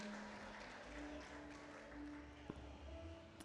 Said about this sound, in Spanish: déjale un aplausito a mi esposo que pensó en mí.